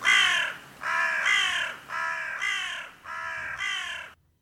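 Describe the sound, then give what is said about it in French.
A crow caws repeatedly, about seven harsh, raspy calls in steady succession, loud, with no other sounds around them. “Monsieur et Madame Loiseau.”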